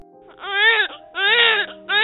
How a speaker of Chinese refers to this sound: 琼斯果断地抱起小孩，用嘴吸着孩子口腔里的脏物。几分钟过去了，婴儿的哭声